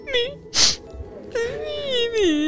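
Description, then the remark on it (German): A voice imitates a small child crying, as Gretel in the tale of Hansel and Gretel, with wavering, high-pitched sobbing wails and a sharp breathy burst partway through, fairly loud. “Als die Alten schliefen, begann Gretel zu weinen.”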